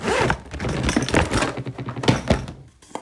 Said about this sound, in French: J'ouvre ma poudre d'ici après. C'est bon.